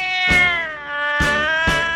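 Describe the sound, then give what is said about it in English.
A cat meows loudly in a drawn-out, wavering yowl, with sharp bursts of emphasis partway through, like an agitated or startled cat. No one speaks. “It chased away a dog and a cat.”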